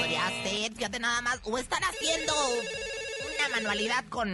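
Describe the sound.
A telephone rings for an incoming call to a show's mystery-sound contest, its steady electronic tones repeating beneath lively, overlapping talk that runs through the whole stretch.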